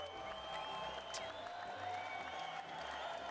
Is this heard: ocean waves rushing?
no